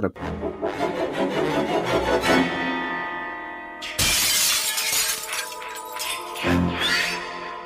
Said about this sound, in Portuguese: Então, se ela escutar, uma janela quebrando, uma, um barulho, sei lá